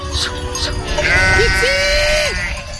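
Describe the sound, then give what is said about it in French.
A single sheep lets out a long, wavering bleat, rising and then trailing off, over a steady rumble of outdoor background noise. “Être seule loin du monde, au milieu du cosmos, moi, la bergère, ne faire plus qu'une avec la montagne, la chienne et le brebis.”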